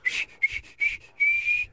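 A person whistles a quick series of short, breathy high notes, then holds one longer steady note at the end. No one talks; the whistle is clear and moderately loud.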